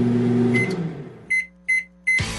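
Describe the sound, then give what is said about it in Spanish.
A microwave oven hums steadily for a moment, then falls quiet and gives three clear, evenly spaced electronic beeps, fairly loud, with no one speaking. “premios como hornos microondas, tablets, smartphones o bicicletas, sin rifas ni sorteos”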